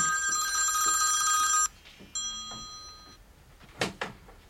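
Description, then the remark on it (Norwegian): A telephone bell rings loudly for over a second, then a second, shorter and quieter ring follows after a brief pause, ending with a couple of sharp clicks. “Jeg vet det var en spent time i redaksjonen i København, fram til jeg ringte etter bisettelsen.”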